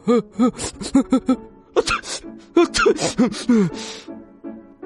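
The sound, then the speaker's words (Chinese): A voice imitates the huge sneeze of the Sneeze Dragon in a children's story, which knocks two shop owners head over heels: a string of stuttering, pitched build-up gasps, then loud breathy explosive bursts and strained, wavering vocal sounds trailing off. “喷嚏，把两位老板喷了一个跟头。”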